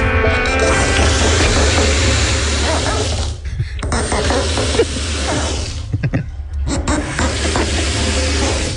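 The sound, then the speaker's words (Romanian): Mr. Luca's leaky faucet, the same one from the day before, lets out a loud, steady hiss of escaping water, broken by two brief sputtering dips before the rushing hiss resumes at full strength. “Deci robinetul de ieri al domnului Luca da, revine.”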